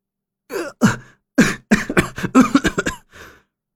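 A fit of harsh, raspy coughing from a man lying collapsed on the ground, gasping after being beaten: two separate coughs, then a rapid run of about half a dozen hacking bursts, ending in a faint wheezy breath. There is no talking.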